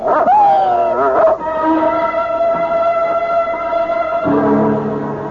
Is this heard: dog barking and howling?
yes